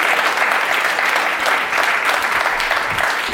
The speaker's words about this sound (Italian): Un applauso, un applauso, un applauso.